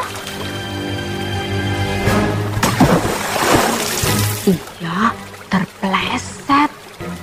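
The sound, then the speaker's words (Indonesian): A loud splash as someone hopping from stone to stone across a river falls into the water, a churning burst of water lasting a couple of seconds, followed by short vocal cries over a soft musical background. “dan jatuh ke sungai.”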